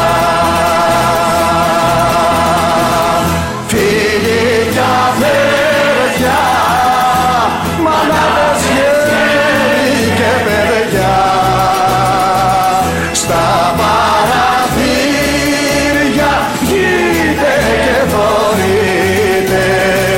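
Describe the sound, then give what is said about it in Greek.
A Greek song about the hero Michalis Bezentakos plays loudly and steadily throughout, full-band, with a sung melody over sustained instruments and a driving low rhythm, the lead line rising and falling in long phrases. “Το έβαλα και την Παρασκευή, το βάλω και σήμερα το τραγούδι για τον ήρωα Μπεζεντάκο, Μιχάλης Μπεζεντάκος, που δραπέτευσε από τις φυλακές του Συγκρού με έναν μαγικό τρόπο για να συνεχίσει να αγωνίζεται όλη τη ζωή”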